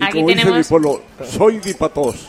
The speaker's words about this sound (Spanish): Brindamos con un cava de Extremadura de Almendralejo. Salud.